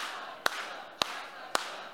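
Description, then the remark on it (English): An audience clapping along in unison with the speaker: three crisp, sharp claps land at a steady, even beat over a low, constant background hiss, with no talking. “Everyone clap with me.”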